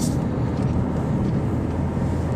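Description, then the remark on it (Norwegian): A bus marked Sort Line drives past, its heavy engine a steady deep drone with road noise that holds at an even, fairly loud level throughout, with no voices. “Sort Line står det på bussen som kjørte forbi her nå.”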